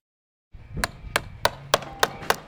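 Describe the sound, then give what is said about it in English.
Six sharp, evenly spaced hammer strikes ring out about a third of a second apart, loud, over a low rumble of worksite noise, as about a dozen workers hammer nails and saw wood at a net zero affordable housing construction site on a cold fall morning in Basalt, Colorado. “About a dozen workers keep warm by hammering nails and sawing wood on a cold fall morning in Basalt, Colorado.”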